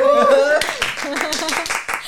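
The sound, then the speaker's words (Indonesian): A quick run of about seven or eight sharp hand claps at a steady, brisk rhythm, following a brief burst of voice, with some voice lingering faintly beneath the claps. “Gue lupa kalau tepuk tangan.”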